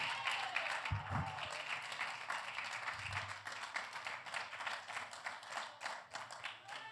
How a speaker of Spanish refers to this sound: O oh, sea ese aplauso es para mí, está bueno, pero siempre a Dios le hace lo mejor.